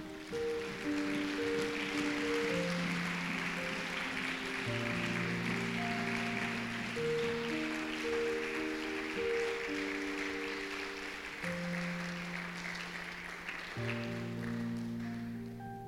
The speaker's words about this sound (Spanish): Y le das un aplauso al Señor.